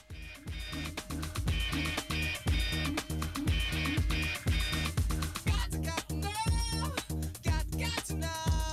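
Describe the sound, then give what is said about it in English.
A song plays loudly with a steady, driving drum beat and heavy bass, layered with bright melodic lines and sliding vocal-like tones in the second half, with no talking over it. “Do you want to listen to …? Yeah, let's play a little bit … here.”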